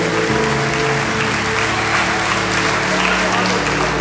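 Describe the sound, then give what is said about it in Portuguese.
A church audience applauds the Lord Jesus steadily, the clapping dense and sustained for several seconds, with a low hum or organ-like tones underneath. “Pode aplaudir o Senhor Jesus.”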